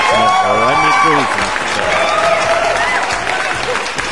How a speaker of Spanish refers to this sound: Aplausos para la otra frase chingona